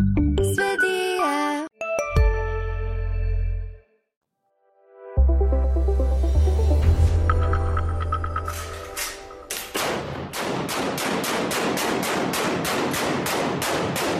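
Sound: gunshots fired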